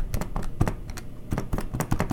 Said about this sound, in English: I would avoid sitting in somebody's office where it's it's supposedly quiet because you know what? Uh, even here, here's me pressing pressing keys on a calculator.